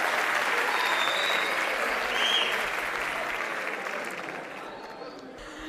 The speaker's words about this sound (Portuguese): Filha da puta, vocês ainda aplaudem, né?